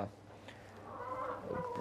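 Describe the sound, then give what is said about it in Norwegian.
Hens cluck and murmur in a short, continuous burst, with a few sharper rising calls toward the end over a low background hum. “på hønsene dette her med Når jeg har skaffa disse nye hanene, som er mindre hane.”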